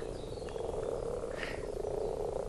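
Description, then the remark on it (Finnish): A dense chorus of frogs croaking together at a pond in Finland, a continuous, steady rumble with many overlapping calls and no voices. “Tämä on yksi Suomen luonnon hienoimpia näytelmiä, kun sammakoilla on meininki päällä.”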